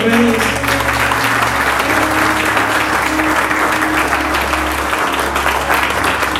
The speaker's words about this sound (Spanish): ¿Alguien puede aplaudirle al Rey